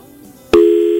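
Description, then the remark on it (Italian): After a quiet lead-in, a steady telephone busy tone from a dropped call starts abruptly, a loud sustained electronic hum holding one pitch with a bright, buzzy edge. “è caduto. È caduto, caduto adesso lo ripeschiamo.”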